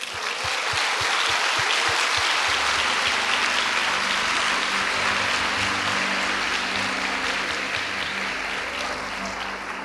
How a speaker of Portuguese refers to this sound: Então eu quero que você se vire para o seu irmão e celebre a vida dele com uma salva de palmas.